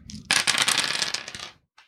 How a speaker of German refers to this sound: Also das, das Würfeln hört sich irgendwie so an.